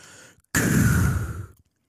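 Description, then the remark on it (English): A voice imitates the hiss of escaping steam with one loud, breathy whoosh lasting about a second, preceded by a softer breath, with no talking. “of steam letting out and the ladder falls”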